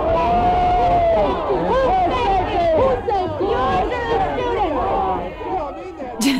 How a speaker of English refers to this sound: whose safety? Whose safety? Yes, they're yelling, whose safety? Yours are the students. You can hear someone repeating bullshit over and over again in the background.